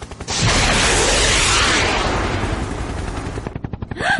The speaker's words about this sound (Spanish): Abrir el fuego al helicóptero. Repito, abrirá el fuego.